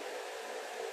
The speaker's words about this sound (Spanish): si se escucha algún ruido de fondo, es el ventilador. Eh, así que bueno, estoy, con el venti, se, se, me está haciendo imposible grabar eh, por el calor que está, que está haciendo acá en Argentina.